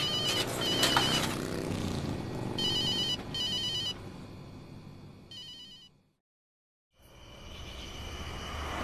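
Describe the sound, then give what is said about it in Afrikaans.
A telephone rings in repeated bursts of bright, high-pitched trilling over a steady rumbling background, then cuts to a second of silence before the rumble returns. “Ek antwoord nie die ding nie.”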